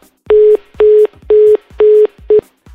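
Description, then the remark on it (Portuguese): A telephone busy tone beeps five times in a fast, even on-off rhythm, each beep a steady mid-pitched hum, loud and alone with no voices, signalling a call that won't connect and goes to voicemail. “Chamada encaminhada para a caixa postal.”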